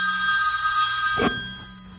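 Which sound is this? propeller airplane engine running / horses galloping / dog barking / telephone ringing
telephone ringing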